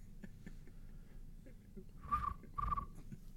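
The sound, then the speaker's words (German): A voice imitates cricket chirping with two short, trilling chirps about half a second apart, moderately loud over a low background rumble. “du kannst sogar Grillenzirpen machen”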